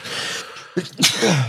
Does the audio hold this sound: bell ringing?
no